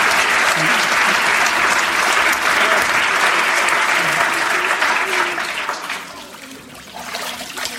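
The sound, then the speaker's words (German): A church audience applauds after a baptism in a steady, dense wash of clapping that holds strong for several seconds, then gradually thins and softens toward the end. “Applaus”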